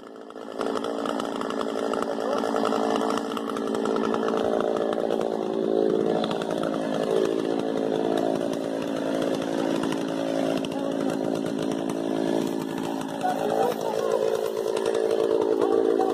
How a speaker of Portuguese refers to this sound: o que está bombando hoje nas redes sociais é, as imagens são as imagens de um deputado usando motosserra para ah, abrir uma reserva indígena.